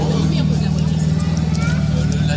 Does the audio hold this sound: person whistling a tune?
no